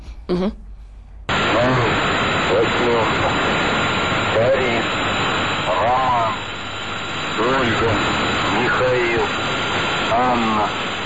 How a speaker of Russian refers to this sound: Вот, этот жужжащий звук доносится загадочно загадочной российской радиостанции. и не только жужжащий звук, но наряду с кодовыми словами и цифрами.